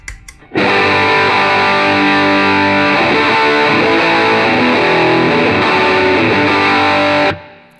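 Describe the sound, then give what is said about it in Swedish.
A heavily distorted electric guitar, with everything on the guitar turned fully up and played through a drive-type pedal, rings out loud and sustained, a thick wall of overdriven harmonics holding for about seven seconds with slight reverb, then cutting off abruptly. No one speaks. “Och eh, allting på fullt på gitarren och och eh, lite dist och en aning reverb-driven.”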